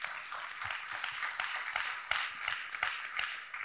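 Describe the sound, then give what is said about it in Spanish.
A church audience breaks into steady applause for the Lord, many hands clapping in a dense, bright wash with frequent sharper claps standing out, sustained at a fairly even level throughout. “Oh, de un aplauso al Señor, hermano.”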